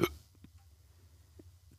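Several short, soft hiccups come at uneven intervals over a low background hum, each a quick, clipped gulp of breath, fairly quiet.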